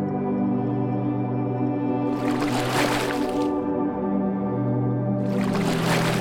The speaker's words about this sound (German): Wir rudern mit dem Boot gleichmäßig über den See.